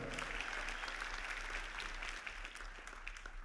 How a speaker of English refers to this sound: Uh, and yeah, um, I will I will take that applause.